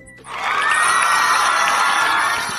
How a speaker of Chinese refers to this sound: 那些人那齐声欢呼：“丁丁万岁，米卢万岁！丁丁万岁，丁丁和米卢万岁！”